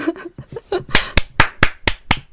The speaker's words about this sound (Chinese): 好，鼓掌。